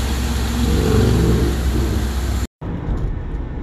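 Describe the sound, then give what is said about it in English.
A steady low engine rumble fills the cabin of a moving car, loud and continuous, with a brief cut near the end before the muffled drone resumes more quietly. “are now in the car.”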